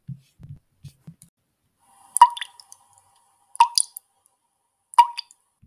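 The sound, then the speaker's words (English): Three crisp drips of liquid land one by one at a slow, even pace, each a sharp plink with a brief ringing tail, following a few soft low muffled sounds at the start. “The bodies were in front of me, so how could I hear the drips?”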